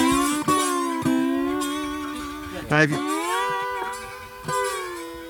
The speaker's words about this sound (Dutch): Dat is volgens mij een slide gitaar. ja. Oh, dat kan ook. Ja, een liggende slide. Ja, ja een liggende eh, slide, ja.